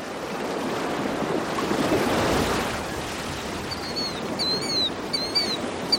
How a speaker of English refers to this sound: Waves rolling through the ocean look completely separate from the salty air above as they crash down and sink back into the depths.